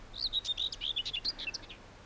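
A short, scratchy warbling song of a common whitethroat, a rapid jumble of bright chirps and twitters delivered in one quick burst, clear with no one talking.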